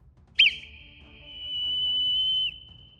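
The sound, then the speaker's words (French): A single long whistle signal in Morse code, a long sound standing for a dash, clear, starting with a sharp attack and then holding one steady high pitch for about two seconds before stopping abruptly. No one speaks. “Le premier sifflement.”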